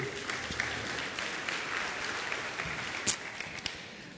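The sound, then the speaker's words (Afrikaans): An audience claps steadily together for an orchestra, a dense wash of many hands applauding, with no voices rising above the sustained clapping. “Geef vir die orkes 'n lekker hande klap toe.”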